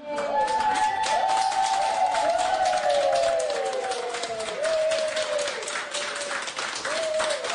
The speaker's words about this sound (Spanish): el laboratorio fue Pfizer que definitivamente fue la primera autorizada para empezar a vacunar masivamente, inicialmente en el Reino Unido, con estos aplausos que al final resultaron estremecedores.